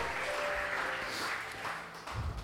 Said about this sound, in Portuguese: Pode aplaudir ao Senhor, ele merece. O Senhor é bom.